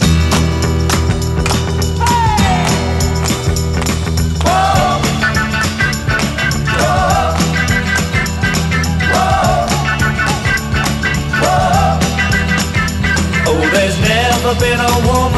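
A 1960s pop rock song plays loud and steady, with drums, bass and guitars driving a full-band sound; a singing voice enters after a few seconds and carries the melody.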